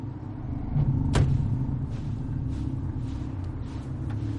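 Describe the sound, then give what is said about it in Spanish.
A car engine rumbles low and steady as the vehicle pulls up on a street and parks in front of a house, with one sharp click partway through, without any voices. “En una calle, Eric estaciona frente a una casa.”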